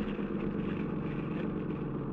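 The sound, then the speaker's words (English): A motor launch engine drones steadily and loudly, a continuous throbbing roar with a low rumble and no pauses or voices. “The Commandant got everything he could out of the launch.”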